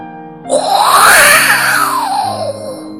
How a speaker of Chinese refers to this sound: 大风也怒吼着。